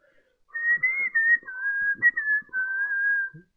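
Someone whistles a short melodic tune while walking to a warehouse, a clear high-pitched line of sustained notes that gently rise and fall over about three seconds, with no talking.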